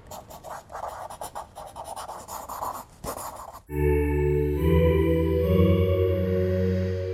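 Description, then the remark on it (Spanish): Steady scratching of a pencil writing across paper for about three seconds, in quick uneven strokes, before it cuts off and a sustained tonal musical passage takes over. “Busca papel y lápiz que esto ya va a comenzar.”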